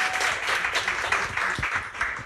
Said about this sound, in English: oh, give a round of applause, oh, you guys.